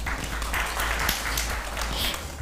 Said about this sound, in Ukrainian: Це оплески не нам, а американським платникам податків. Саме так.